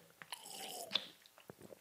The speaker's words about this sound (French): après une petite gorgée d'eau pour ceux qui écoutent le podcast.